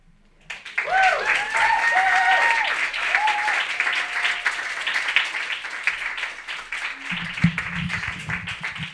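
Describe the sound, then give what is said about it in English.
An audience bursts into loud, sustained applause after a reading at a live reading event, with a few high whoops and cheers rising over the clapping early on, continuing steadily to the end. “Keep it going for Anthony. That was phenomenal.”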